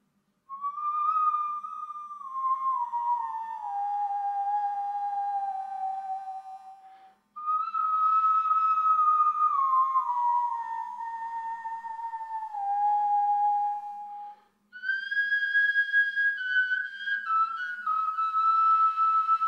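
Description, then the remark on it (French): A replica bone flute, carved from a 50,000-year-old fossil cave bear bone, plays three long, breathy phrases of sustained tones that slide slowly downward in pitch, with brief pauses between them. It is heard alone, with no talking. “sculpter sa propre réplique de la flûte de Dijbab à partir d'un os fossile d'ours des cavernes vieux de 50 000 ans.”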